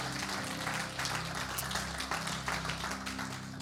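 An audience applauds steadily, a dense wash of many hands clapping at an even level for several seconds, with a low sustained hum underneath and no one speaking.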